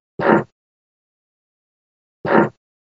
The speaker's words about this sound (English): It's interesting when you can see a fart.